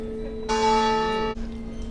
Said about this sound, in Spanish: entre campanadas de recibimiento, marcando esta hora punta, pues hacíamos esa parada.